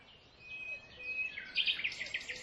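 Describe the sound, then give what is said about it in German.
Several waking birds sing and chirp together in a dawn chorus at about 5 a.m., with a thin whistled note at first and then busier, brighter trills building toward the end. No voices are heard. “Noch versunken in seine Schokolade und dem Konzert der erwachenden Vögel.”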